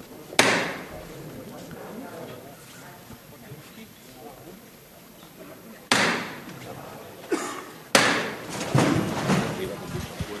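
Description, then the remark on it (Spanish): The knocker hammer of a canopied procession float (palio) strikes three times, sharp and loud, with long gaps between the blows, over a low murmur of a surrounding crowd. The float stands about a metre and a half from a chapel door. “va a tocar de nuevo el martillo.”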